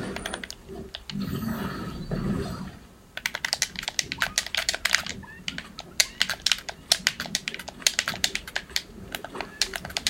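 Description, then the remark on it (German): Rapid, clattering keystrokes on a computer keyboard, fairly loud, running steadily for several seconds after a brief stretch of low, muffled background noise. “Jetzt man hört deine Tasten halt sowas von.”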